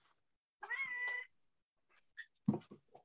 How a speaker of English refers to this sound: Um, sorry, no one heard of meow just then, did they? I didn't. It was very, very cute.